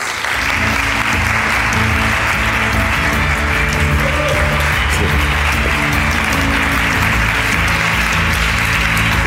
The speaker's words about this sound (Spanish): Un aplauso muy fuerte para él.